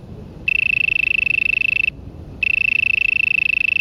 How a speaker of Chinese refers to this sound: 夏天晚上的公园，常可以听到它从地下发出声调单一而没有节奏，也不太好听的虫鸣声。这个声音的主人往往就是蝼蛄。我们来听听看它的声音吧。